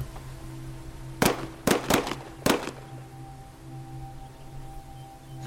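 Four sharp gunshots crack out in quick, uneven succession in a forest, then stop, leaving only a low steady hum in the background. No one speaks.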